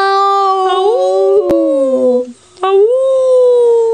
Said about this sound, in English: He heard a howling sound.